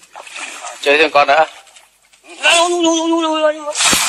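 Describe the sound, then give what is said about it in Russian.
Bursts of water splashing and sloshing open and close the moment, with a man's loud, strained, intense cries and yells ringing out in between as he takes hold of a fishing rod with an electric eel of 650 volts caught on it. “Мужику не повезло, поймал на удочку электрического угря.”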